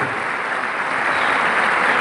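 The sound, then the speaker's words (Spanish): A crowd claps steadily, a dense wash of many hands applauding at a fairly loud, even level throughout, with no voices standing out above it; an audience at a gathering with presentations on stage, applauding themselves for attending. “solamente le puedo decir hoy a Dios gracias por esta oportunidad y un fuerte aplauso a ustedes por estar acá también.”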